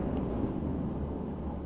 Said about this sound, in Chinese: 这阵雷声来得正好，就好像是我配上去的一样。